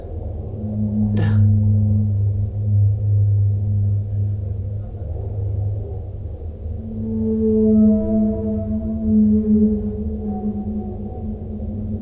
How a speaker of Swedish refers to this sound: singing whale sounds for deep relaxation, sleep or stress relief